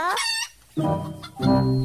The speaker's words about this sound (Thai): โน่นไง ผู้ร้ายตัวจริงมาละ ไปช่วยกันไล่หน่อยเร็ว สงสัยว่าจะเป็นไก่ที่หลุดมาจากวัดแน่ๆเลยไปช่วยกันไล่หน่อย